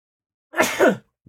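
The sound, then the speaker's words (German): A single sharp sneeze bursts out after a short silence, a quick two-part explosive burst with a breathy hiss, followed by a faint hint of a voice starting up. “Gesundheit.”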